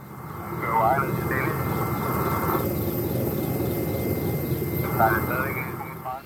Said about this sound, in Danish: Og helikopteren vejer som sagt lige omkring 15 tons, så det er cirka også det tryk, som rotorbladene så presser vinden ned mod jorden med